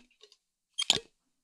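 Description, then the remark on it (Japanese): A few faint plastic ticks, then a short squeaky twist as the lid of a water bottle is screwed shut, heard alone. “キュッキュッて蓋を閉める音。”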